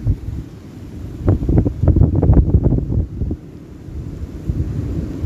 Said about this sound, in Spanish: aprovechando el sonido de fondo del mar, del viento.